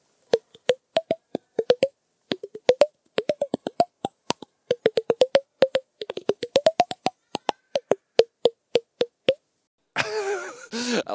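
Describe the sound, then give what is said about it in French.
A rapid series of hollow popping tones made by a person tapping their chin while slightly moving their mouth in a short improvisation, the pitch shifting note to note like a little melody, clear, then a voice begins speaking. “Je me tape le menton en bougeant un peu la bouche, ce qui fait des petits sons.”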